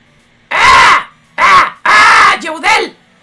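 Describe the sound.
A voice imitates a crow called the crow José, like the mission-assigning crow in Demon Slayer, giving four loud, harsh caws: three long rasping calls with short gaps between, the last one breaking into two quicker, choppier bursts.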